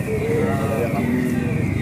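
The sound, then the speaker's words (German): A car alarm siren sounds continuously for about two seconds, a loud, steady electronic wail with sustained tones that waver slightly in pitch, over a low rumbling background. “Ja, hier ist es, diese Sirene hören wir öfter.”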